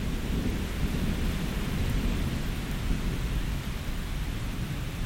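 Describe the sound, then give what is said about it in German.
Steady heavy rain from a summer thunderstorm in the city pours down on a street with a low, continuous rumble of thunder directly overhead, dense and unbroken throughout, with no voices. “Der Regen prasselt auf die Straße, das Donnergrollen genau über dir.”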